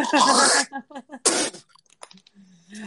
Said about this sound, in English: I have to cough up a little dumpling.